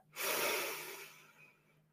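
A single deep, drawn-out inhale through the nose, starting strong with a breathy hiss and gradually tapering off over about a second and a half. No talking.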